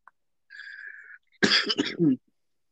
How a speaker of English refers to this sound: I'm gonna, to, I'm gonna, have to, edit all the coughs out.